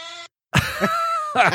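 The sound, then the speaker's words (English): A cat makes an odd, strained vocal noise: a brief droning tone, a pause, then a rough guttural burst sliding into a sustained warbling yowl that breaks off abruptly. “Listen, listen to this cat.”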